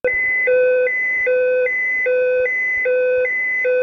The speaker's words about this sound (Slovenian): Ostala dva alarma pa predstavljata pozorila astronautom, ki morajo hitro ukrepati.